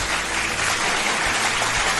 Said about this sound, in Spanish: Parece que está lloviendo, pero son unos aplausos.